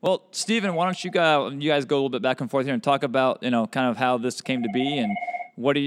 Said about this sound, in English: that's the phone in the office.